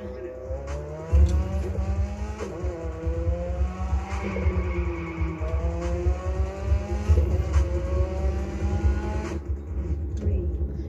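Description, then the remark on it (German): A video game car engine revs steadily, its pitch climbing and dropping in repeated sweeps like gear shifts, loud, with occasional sharp clicks and a voice murmuring underneath. “Ja, der ist doch geil, der Wagen.”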